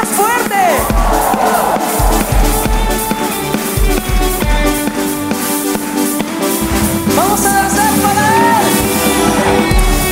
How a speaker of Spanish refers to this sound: Cuando decimos amén? Un grito de júbilo.